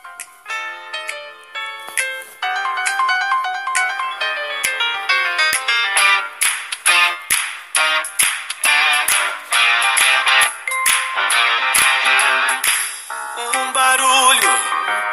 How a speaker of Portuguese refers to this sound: vamos passar a música …, a nova música de DPA, Detetives do Prédio Azul